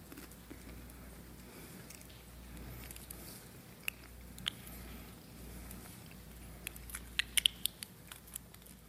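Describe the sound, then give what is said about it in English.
Crisp chewing of a thin communion wafer, taken from a prepackaged communion cup by peeling back the top layer during a communion service, with small irregular crunches and clicks over a low background hum, no talking. “So as we come to the cup, peel back that top layer, pull out the bread. Just hold it here for a second. This is his body broken for us. Let's take together.”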